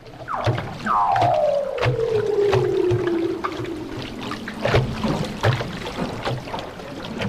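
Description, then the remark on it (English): A long, eerie descending underwater trill sweeps down from high to low over several seconds, followed by fainter calls, with rhythmic clicks and a steady watery background throughout: leopard seals singing around a boat's hull, recorded at night with a hydrophone put over the side. “For the first time, I heard uh, this noise the next day, and I thought we all presumed, oh, it's, it's a whale or something, but it was leopard seals playing around the hull, and they make the most intriguing sound, the most amazing, beautiful song”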